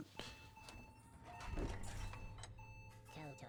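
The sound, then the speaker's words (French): A steady, high-pitched electronic beep from inside a game, heard within headphones, sounds repeatedly with brief breaks, clear over a busy background of rumbling noise and muffled voices. “On a un, un bip à ah, l'instant.”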